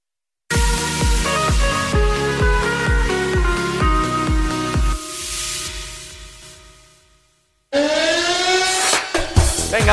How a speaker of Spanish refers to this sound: que suene la sirena, que suene